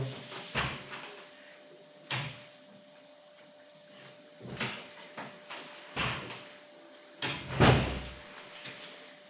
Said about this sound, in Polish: teraz może otworzę na chwilę drzwi i zamknę.